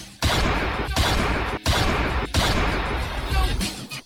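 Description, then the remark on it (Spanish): Several loud gunshots fire in quick succession in a shooting attack, each blast sharp and booming with a brief ringing tail, forming an irregular volley over about four seconds with no voices. “Pac sufrió otro atentado y recibió cuatro disparos”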